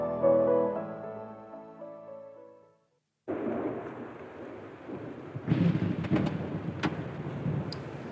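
After a brief musical phrase and a short silence, a dense hiss of sleet and rain sets in, growing heavier midway with sharp, crackling pelts against surfaces.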